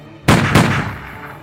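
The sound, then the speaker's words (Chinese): Two loud, sharp gunshots in quick succession, fired by a police officer at a wolf in thick fog, each a sudden booming crack followed by a fading rumble that trails off over about a second. No voices. “慌张中，这名警员立即拔枪射向了那头狼，大头狼应声倒地。所有人听到枪声之后， 吓了一大跳，纷纷冲到那头倒下的狼身边。”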